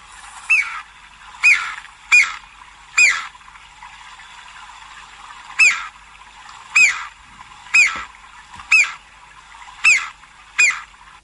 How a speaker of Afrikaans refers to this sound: en hy kom in Suid-Afrika voor en dis die grondspeg. As jy nou hom wil sien, moet jy daar gaan na Graaf Renet se wêreld op die skarp en jy kyk oor daai lieflike kudu wêreld, né? Nee? En dan sal jy die vreemde geluid van die grondspeg hoor.